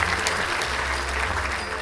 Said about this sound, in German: Großartig! Applaus!